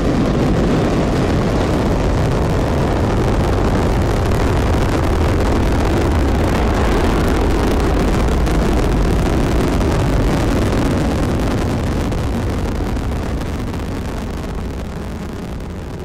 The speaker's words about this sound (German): 3, 2, 1, 0. All engine running. Liftoff. We have a liftoff.